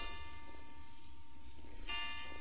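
A clock strikes twelve at midnight with deep, resonant bell tones, one chime ringing and slowly fading before the next lands about two seconds later. The ringing is moderately loud, with no talk over it.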